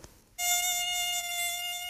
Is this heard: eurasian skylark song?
no